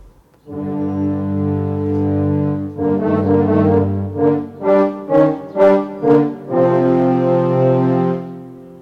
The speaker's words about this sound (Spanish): El tema del lobo es interpretado por los cornos.